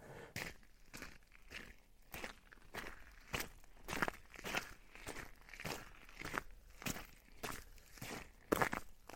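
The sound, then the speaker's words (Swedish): Steady footsteps of shoes crunch across ice where a little water is running, about two crisp, crackling steps per second with a brittle, gritty texture, continuing without talk. “Jag kan gå lite på, här är det faktiskt lite vatten som rinner så jag skulle kunna gå här på.”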